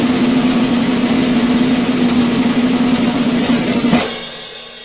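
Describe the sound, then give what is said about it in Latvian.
A lottery draw machine, switched on to draw lots numbered one to three, runs with a loud, steady whirring rush over a constant low hum for about four seconds, then cuts off abruptly into a fading tail. No one speaks. “Labi, lozes mašīna ir ieslēgta, viens līdz trīs, kā jūs man te stāvat, salikti uh, eh, izziņu mašīnā.”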